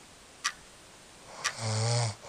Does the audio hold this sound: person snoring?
yes